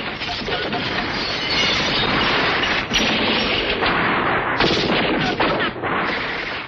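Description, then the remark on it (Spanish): Dense, continuous gunfire fills the scene, with rapid machine-gun bursts overlapping in a loud, chaotic wash of shots coming from many directions, barely pausing throughout. “Luego los disparos decrecieron, pero no acabaron. Los tiros salían de muchas direcciones y las ráfagas de las ametralladoras zumbaban en todas partes”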